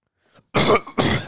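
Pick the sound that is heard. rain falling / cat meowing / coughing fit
coughing fit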